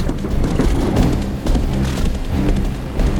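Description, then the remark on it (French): Steady heavy rain pours down in a dense, continuous hiss with a low rumbling undertone, loud throughout, with no voices. “Heureusement, la pluie effacera mes traces.”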